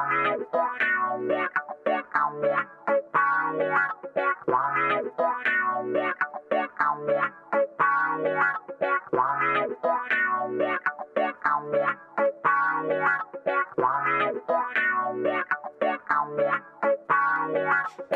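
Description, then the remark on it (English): A music track plays continuously on the Lush Vibes Radio show on Radio Free Brooklyn, at full volume, with a steady rhythmic pulse, dense harmonic tones and heavily effected, distorted textures throughout, with no one talking over it. “But for right now, we are going to kick off the night with a, a track from the internet.”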